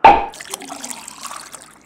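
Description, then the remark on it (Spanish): A wine bottle is uncorked with a sharp pop, followed right away by wine splashing and gurgling as it pours steadily for a couple of seconds, with no voices. “Tenemos vino del mejor. a ver, a ver. ¡Epa, y vos! ¡Qué buen botín, Jules, eh! A ver, a ver, destape, haga los honores.”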